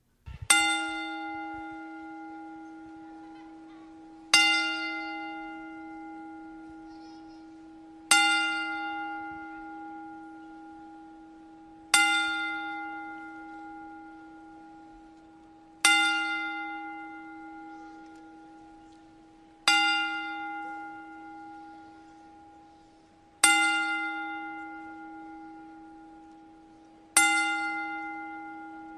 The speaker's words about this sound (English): we'd like to pay tribute to Scott Hall, Razor Ramon, with a 10 bell salute